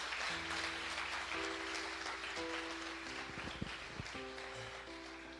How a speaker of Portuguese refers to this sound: Vamos aplaudir Jesus.